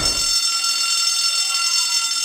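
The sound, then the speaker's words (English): A loud, continuous break-in alarm bell rings steadily without pause, its harsh metallic clangor forming a dense, sustained high-pitched buzz. “The alarm switch is over here.”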